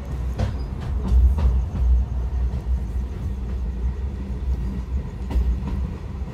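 A passenger train in Tanzania rumbles heavily along the tracks, its low roar punctuated by sharp clanks and jolts at irregular intervals as it slows and the carriages bump into each other, heard from inside a rattling carriage.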